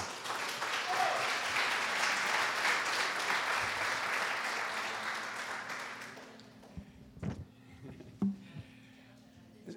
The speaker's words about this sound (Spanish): Eso merece un fuerte aplauso.